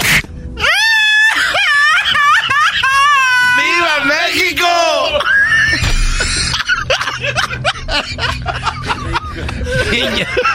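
A person wails and screams loudly, with long wavering, rising and falling cries that break into choppier, strained outbursts toward the end.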